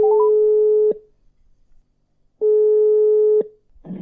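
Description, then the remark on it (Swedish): A telephone ringback tone while calling a parish priest: two steady, loud one-second beeps separated by a long pause, heard clearly on the line with no talking. “Så jag valde att ringa kyrkoherden dagen efter istället.”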